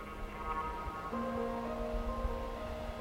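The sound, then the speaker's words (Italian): A steady, soft rush of wind descending through the woods beyond a lake and spreading over the water, rippling its surface into waves, with a low rumble and faint sustained tones running underneath throughout. “Il bosco al di là del lago risuona della discesa del vento al termine del bosco le acque sulle quali il soffio si distende, increspando la superficie.”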